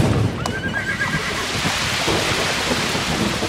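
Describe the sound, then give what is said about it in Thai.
A horse pulling a cart along a road whinnies once near the start, followed by steady hoofbeats clopping along beneath a constant wash of heavy rain, with faint rumbling in the background. “แต่ชายคนนั้นก็ไม่ยอมหยุด ยังตีม้าและลากเกวียนต่อไป”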